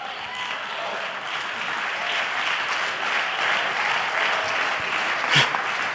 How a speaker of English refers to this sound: That was, that was, there was no, almost no support for that word at all. About 20% of you clapped your hands.